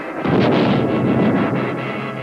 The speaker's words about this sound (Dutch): Ja, Wat een knal, hè? De Sonic Boom.